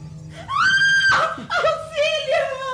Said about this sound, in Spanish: No grites, palomita. Nadie vendrá a ayudarte.